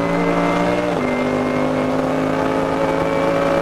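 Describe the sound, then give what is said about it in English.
An SP3T class race car being overtaken on the Mercedes Arena section of the Nürburgring, its engine roaring loudly and continuously, the pitch dropping abruptly about a second in as it goes by, then holding a steady, lower drone. “So that car just being overtaken in SP3T on the Mercedes Arena, but motoring his way towards the end of this current lap, lap 15, is Dominic Bauman.”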